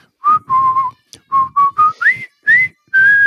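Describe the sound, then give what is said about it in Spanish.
A person whistles a jaunty marching tune, the song from the film The Bridge on the River Kwai, a series of clear, steady notes in a bouncy rhythm with short breaks between phrases, fairly loud with no talking. “El silbido, de la canción del puente sobre el río Kwai, pues también, lo mismo...”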